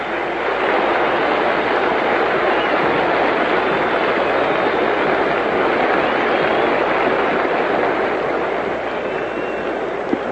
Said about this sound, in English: And that's all for Chandler. He just took his jacket, threw it over his arm, and is trotting out to the clubhouse. Listen to the applause.